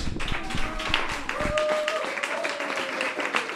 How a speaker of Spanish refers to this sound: Bueno, pues un aplauso a la zorra que todo lo sabe porque no quiero que vuelva.